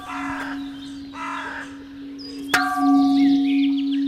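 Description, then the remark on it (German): A newly cast bell rings with a steady low hum, then is struck once, sharply, releasing bright lingering overtones with a slight buzzy rasp because the bell has not yet been cleaned; a sound not heard for 800 years. Crows caw twice beforehand; no one speaks. “Sie schnarrt noch ein bisschen, weil wir sie noch säubern müssen, aber ansonsten ein toller Klang, den man eben auch seit 800 Jahren nicht mehr gehört hat.”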